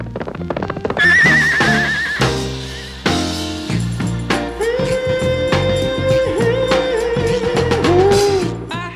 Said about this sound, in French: Et oui, vous avez bien entendu, ce n'est rien d'autre qu'un hennissement de cheval.